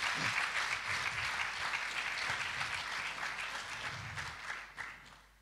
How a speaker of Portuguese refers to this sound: Amém? Pode aplaudir o Senhor.